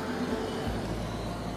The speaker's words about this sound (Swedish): Här kommer en buss.